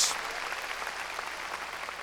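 An audience claps together in strong applause for the Lord, a steady, dense wash of applause that fills the full two seconds, with many hands blending into a continuous roar and no voices on top.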